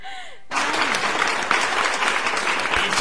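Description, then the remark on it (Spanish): Weak, lackluster applause starts after a brief pause and holds at a steady, unexcited level for about two and a half seconds, like a small group clapping half-heartedly. “aplausos bien aguados.”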